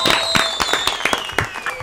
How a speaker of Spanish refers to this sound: Recibamos con un aplauso a Tocayo.